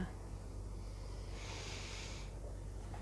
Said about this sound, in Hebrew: נשימה עמוקה